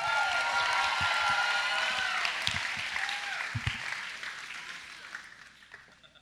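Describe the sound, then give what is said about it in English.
A crowd cheers and claps loudly for the 13-year-olds in the audience, with whoops and shouts over dense applause that gradually fades over several seconds. “Let's make some noise for our 13 year olds.”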